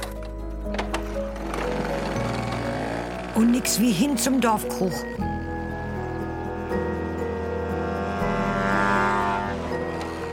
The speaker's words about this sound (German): Nix wie rauf auf die Mofa.